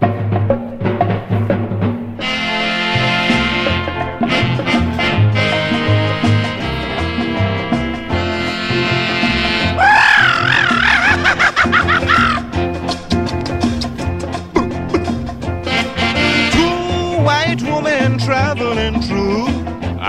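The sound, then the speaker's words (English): A calypso record plays loudly and continuously, with layered instruments, a steady beat, and a singing voice that swoops and wails in places, sounding almost like bird calls. “the next song is a really important song for me, you know.”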